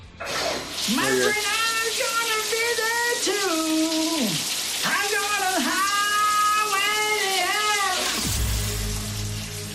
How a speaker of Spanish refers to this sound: te voy a poner una vez más la voz incógnita de quien canta el Jagua y tu gel bajo la ducha